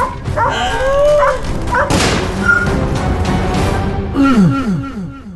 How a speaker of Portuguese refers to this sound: Põe um cachorro também, latido.